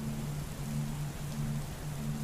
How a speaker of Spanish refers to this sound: La lluvia es incómoda,